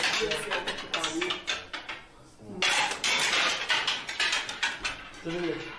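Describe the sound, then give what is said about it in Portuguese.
A dense, rapid clatter of stones raining down onto the roof of a house, rattling continuously in loud bursts with a short lull midway. “Esse de. barulho é o quê? É, são pedras caindo Então no tá telhado. Chuva de pedras São chuva de pedras.”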